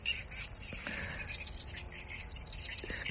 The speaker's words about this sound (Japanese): すごい、鳥が騒いでますね。